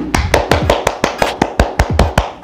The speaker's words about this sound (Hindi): ताली बजाओ जोर से ताली बजाओ